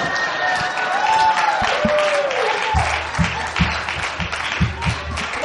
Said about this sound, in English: let's give him a big hand. That's pretty good.